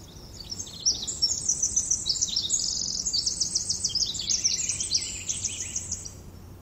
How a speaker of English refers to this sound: This is a recording that I call Cathedral. It's an ancient Cedar Grove, the last remaining grove in Pacific County. The hundreds of square miles around it have been logged, and this is the last stand.